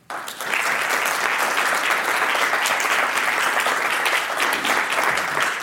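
An audience applauding steadily after a talk at a Commonwealth Club of California program, dense overlapping claps at a consistent loud level that start abruptly and continue for several seconds without any talking.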